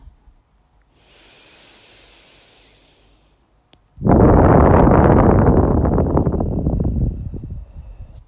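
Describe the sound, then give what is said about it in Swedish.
A soft, airy inhale is followed by a long, loud exhale, rushing and gusty like wind, before it fades out; one of three calm deep breaths in a guided breathing exercise. No one speaks. “Ni hörde hur jag blåste in och blåste ut.”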